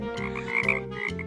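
A group of frogs croaks in a dense, overlapping chorus with steady pulsing calls by a pond after the rain has stopped, moderately loud, with no voices present.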